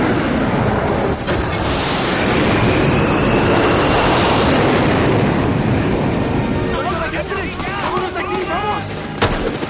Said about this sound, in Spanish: Mientras, el portaaviones en el que va el capitán Rhodes avanza rápido por el mar de él despegan dos aviones de combate